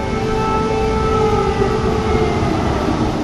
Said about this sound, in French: Au cours de notre discussion, l'alarme antiaérienne retentit.